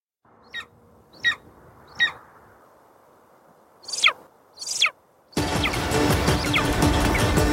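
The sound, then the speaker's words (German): Sharp, piercing eagle screeches from a video clip of an eagle hunting and focusing on its prey ring out, three evenly spaced then two louder, harsher cries, before a sudden loud rushing burst of noise takes over to the end. “Aber was relativ schnell ist und äh, wie das so aussieht und wie so ein Adler seine Beute auch fokussiert, da habe ich euch mal einen Videoclip mitgebracht.”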